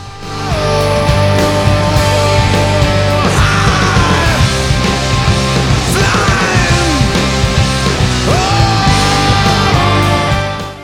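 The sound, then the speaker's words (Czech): A loud, dense rock song with distorted guitars, driving drums and strained, shouted vocals rising and falling over the wall of sound, holding a high, steady intensity throughout. “takový vyloženě rokový skladby prostě. Takhle zní podle mě rok.”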